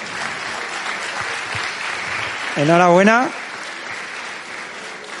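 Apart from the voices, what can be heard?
audience applause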